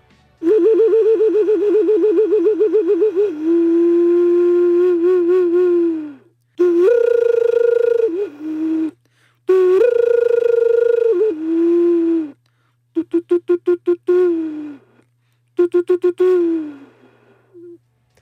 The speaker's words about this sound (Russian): Это рог, рог, как будто бы, нет? Это из рога, да. Из рога. Это укорина из рога. Ну-ка, как это, это звучит? Это когда мы открываем церемонии, открываем, или когда мы хотим общаться с, с горами, мы играем на них.